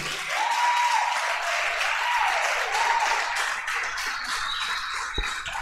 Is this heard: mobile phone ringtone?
no